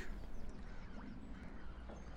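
Gulls call faintly and intermittently, a few short cries drifting over a steady, low background rumble like wind or water, as they circle around fishing boats at sea on a cold, clear day. No one speaks.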